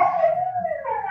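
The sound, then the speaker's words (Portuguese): A dog's drawn-out, howl-like bark rings out fairly loud in a home during a live work-from-home broadcast, one sustained cry lasting about a second with no one talking. “É, peço desculpa pelo latido do cachorro, a gente está em home office, é, pessoal ao vivo.”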